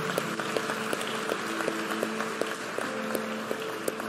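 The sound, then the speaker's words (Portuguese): A church audience applauds steadily to welcome newcomers, a dense wash of many hands clapping with scattered sharper claps, while soft musical tones sustain underneath throughout. “Enquanto isso, igreja, dê uma salva de palmas recebendo todos esses irmãos e irmãs.”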